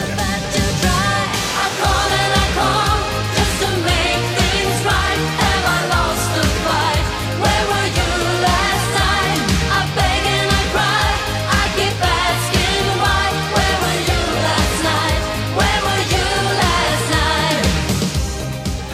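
An upbeat late-80s pop song plays loud and steady, with a driving, pulsing bassline, dense synth and band layers and a bright, busy top end, no pauses throughout.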